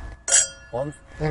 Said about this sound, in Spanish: Oye, brindamos para despedirnos. Pues Venga, salud.